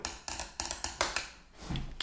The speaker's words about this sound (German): Weißt du, ich gucke einen Film, ich klopfe am Bett ein bisschen und sie guckt mich schon mit großen Augen an, so nach dem Motto, ich hau dir gleich meine Faust in die Fresse.